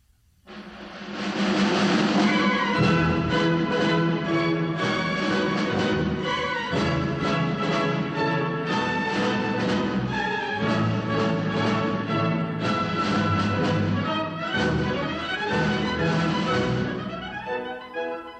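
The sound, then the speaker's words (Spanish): A full orchestra plays the overture to the opera La Gazza Ladra, from a record by the Italian conductor Arturo Toscanini, dense strings and winds moving through brisk, rhythmic passages at a steady, fairly loud level, with no voices over it. “escuchamos, esta obertura de la Gatza Ladra y estamos escuchando eh, de este disco de Arturo Toscanini, este italiano músico y director de orquesta.”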